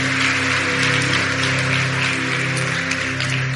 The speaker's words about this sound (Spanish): ¿Qué tal si le das un fuerte aplauso a Jesús para empezar? Muy bien.